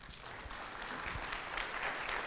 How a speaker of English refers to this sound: Let's give them a little round of applause, shall we?